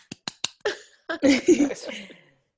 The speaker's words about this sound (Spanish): Estos son aplausos míos para ti.